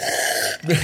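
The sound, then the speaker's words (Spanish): A single sneeze: a breathy, hissing burst followed by a short voiced snort. No talking is heard. “Salud.”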